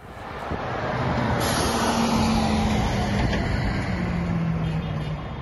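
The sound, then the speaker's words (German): Heavy trucks rumble steadily, engines droning with a low humming whine, as they slow and come to a halt at the Bab el-Hawa crossing on the Turkish-Syrian border amid continuous road noise. “Die Lkw kommen an der türkisch-syrischen Grenze zum Stehen.”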